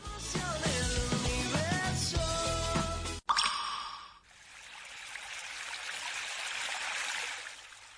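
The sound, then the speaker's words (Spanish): A short burst of music cuts off, then water runs steadily for several seconds, a continuous trickling and splashing flow with no voices, in a water-conservation announcement from the Consejo Insular de Aguas de La Palma. “Sin agua no hay vida, cuídala.”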